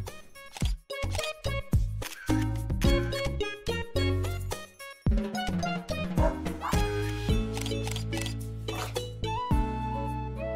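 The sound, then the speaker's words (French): Several dogs bark and yip in short repeated bursts over a bright, busy musical backing in a video game trailer, with occasional sharp clicks mixed in; the barks are fairly loud throughout. “Oui, c'est le Pokémon Snap euh, des dogos, tout simplement.”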